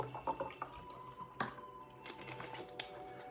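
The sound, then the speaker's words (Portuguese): Water being poured into a glass: a soft, uneven trickle with little splashes and a couple of sharp clinks, fairly quiet and with no talking. “Separe o seu copo com água, peço licença até para encher o meu aqui mais um pouquinho.”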